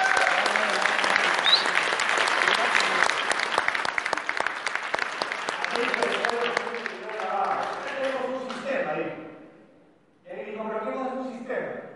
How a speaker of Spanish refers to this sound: Un aplauso para médicos.